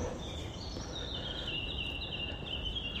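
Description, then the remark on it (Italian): A small bird sings outdoors: a thin, high warbling trill runs almost continuously, fairly faint, over a steady wash of background noise with no talking. “Ah, mi ha sentito questo uccellino? Che bellezza.”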